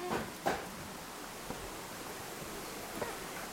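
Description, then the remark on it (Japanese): A steady, soft rush of flowing river water heard in a small rural settlement, continuous and even, with a few faint clicks or knocks early on and no voices. “あもうちょっと出ただけで川の音しますね、この集落 BGM が本当に川の音か鳥のさえずりか風の音かっていうぐらいで、”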